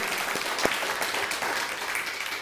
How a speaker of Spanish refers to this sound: A lo que es Centroamérica y Suramérica, también un fuerte aplauso. Iberoamérica. Fuerte aplauso.